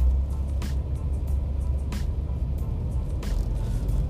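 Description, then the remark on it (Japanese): Steady low engine rumble of a heavy commercial vehicle passing on a road on the east side of an airport, in an area with logistics centers, with a few short hissing bursts like air brakes or tire spray punctuating the continuous drone. “うんまあ、もちろん一般乗用車も走ってはいるんですけどねなんかこう断るごとに出てくる車がその何ちゅうかな商用車が多いです”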